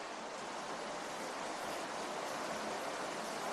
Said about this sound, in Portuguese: Tá começando a chover. Podia ter gravado isso com antecedência, né? Agora vai com chuva mesmo.